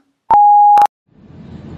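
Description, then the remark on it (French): A single loud, steady electronic answering machine beep at one pitch lasting about half a second, bracketed by brief clicks, followed by faint low rumbling background noise. “Tu peux donc me laisser un message après le bip sonore.”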